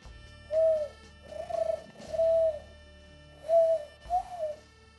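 pigeon cooing

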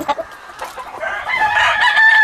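chickens clucking

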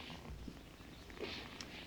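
cat purring

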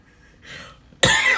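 cough

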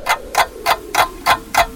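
clock ticking

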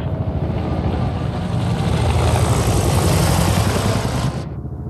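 helicopter flying

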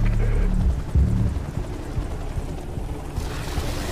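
helicopter flying

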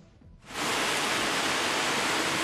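rushing flood water

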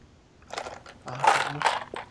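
ice rattling

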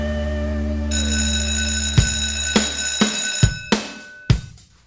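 school bell ringing

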